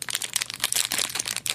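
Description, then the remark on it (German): The stiff paper wrapper of a snack bar being crinkled, a dense run of sharp crackles and rustles with no pauses, fairly loud and with no voices. “Es ist ein sehr festes Papier tatsächlich.”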